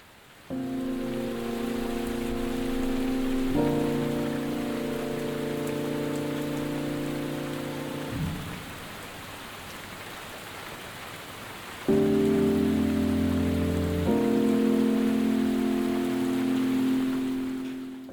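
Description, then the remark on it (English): Steady, dense rain hisses throughout a rainstorm recorded in Cambridge by sound artist Jay Richardson for his piece Late Night, with sustained low humming tones swelling over it in two long stretches, separated by a quieter gap where only the rain remains. “You're about to hear a beautiful rainstorm recorded in Cambridge by sound artist Jay Richardson.”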